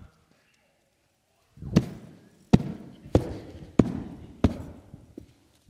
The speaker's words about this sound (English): Did my crumpling and my stomping take away its worth?